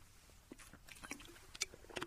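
Someone sips water, making a short series of quiet, wet slurping and mouth clicks scattered over about two seconds, with no talking.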